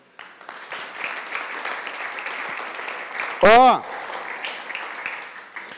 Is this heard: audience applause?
yes